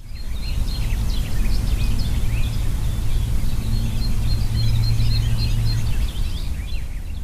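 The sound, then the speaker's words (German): A lively chorus of many birds chirping and singing continuously in a large linden tree in the village of Hede in the Emsland, Germany, overlapping calls from several directions, with a steady low rumble underneath and no voices. “Sie hören schon, die dicke Linde bietet vielen Vögeln eine Heimat.”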